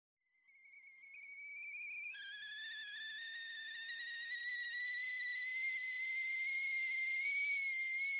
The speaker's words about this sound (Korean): 다시 부엌으로 가자 차주전자가 끓고 있었다. 그녀는 주전자를 불에서 내렸다.